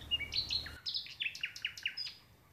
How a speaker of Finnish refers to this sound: ikkunasta alkaa kuulua satakielen laulua